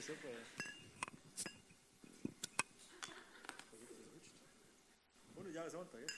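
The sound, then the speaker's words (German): Glasses of cool beer clink together in a toast during a sermon, several bright, sharp taps spread irregularly over a few seconds, with people's voices talking underneath and around them. “Und ähm, wer als erstes hier oben ist, mit dem stoße ich heute an auf 100 Jahre Sonntag.”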